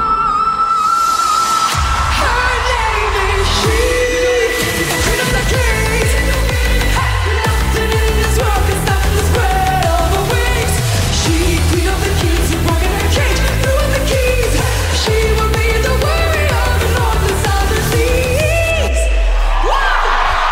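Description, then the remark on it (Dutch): A live song performance with a female singer belting strongly over a full band, her voice rising to a high sustained note; the music stays loud throughout with a steady rhythmic beat underneath. “Ik heb eh, een stukje, een stukje live.”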